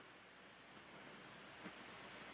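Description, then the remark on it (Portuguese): A steady, faint hum and airy hiss from a switched-on air conditioner, constant and unchanging throughout with no voices, apart from one tiny click near the end. “A gente faz silêncio e a gente só escuta o ar-condicionado.”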